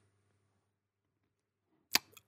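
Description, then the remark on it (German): A brief iPhone WhatsApp notification tone, heard as a sharp, crisp pop followed quickly by a second softer blip, both fairly quiet, after a near-silent stretch with no talking. “Das war eine WhatsApp.”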